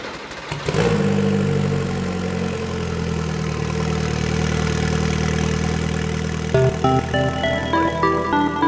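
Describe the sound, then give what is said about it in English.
A modified road car engine with a dry sump system fires up and settles into a loud, steady idle with a deep throbbing rumble, its pitch lifting slightly near the end as it is blipped. “crank for some oil pressure, because uh, although it's a road car engine, it's been modified. Yeah. So it does uh, have a dry sump system, so we will pump oil around the engine.”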